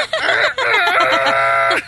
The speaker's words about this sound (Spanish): Ese es un gallo.